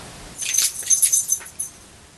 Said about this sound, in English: What was that jingling noise? That was my that was my dog shaking her head. I thought it sounded like a dog collar.